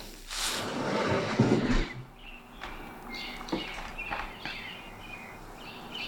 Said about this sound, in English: It is um around 5.16 a.m. Oh, I can hear birds outside. I'll open the window so you can too.